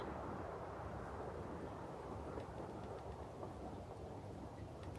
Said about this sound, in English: do you hear the wind?